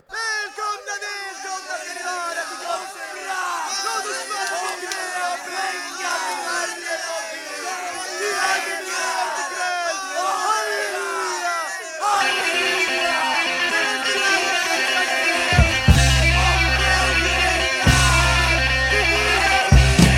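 A dense crowd shouts and cheers for about twelve seconds, then a loud, distorted punk rock band crashes in with heavy guitar chords and a pounding bass-driven beat.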